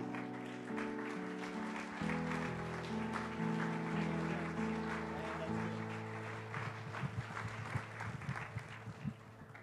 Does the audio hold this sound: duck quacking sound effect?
no